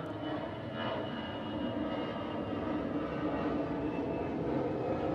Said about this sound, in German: Und wir verabschieden uns mit dem letzten Flieger hier vom Düsseldorfer Schützenplatz in Lohausen. Ach, es ist, dieses Geräusch ist einfach herrlich. Es ist toll.